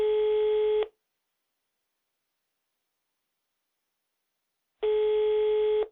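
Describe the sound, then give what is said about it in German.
Two steady telephone ringback tones, each about a second long, separated by a long silent gap, as a call rings out unanswered and goes to voicemail. No voices are heard. “Das Blinken hört auf und die Mailbox springt an.”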